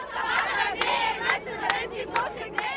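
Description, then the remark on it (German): A large protest crowd on Tahrir Square in Egypt roars with many overlapping voices, rising into loud rhythmic shouts every half second or so, a mass of people chanting together in the open square. “An manchen Tagen kommen mehrere hunderttausend Menschen zum Tahrir-Platz.”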